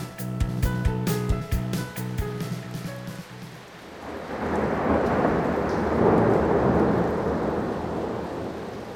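A few seconds of tonal, plucked-sounding notes give way to a heavy wash of steady rain with deep rolling thunder, swelling louder and holding strong to the end with no voices.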